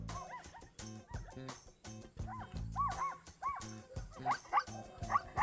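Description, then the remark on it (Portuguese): Young dogs bark and yip in quick, overlapping bursts, some high and whiny, others short and sharp, continuing throughout with no talking. “Eu estou ouvindo latidos de cachorro.”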